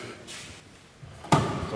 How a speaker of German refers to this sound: Tür geht